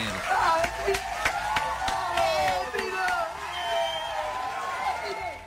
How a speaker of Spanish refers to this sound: te recibimos con estos aplausos, señores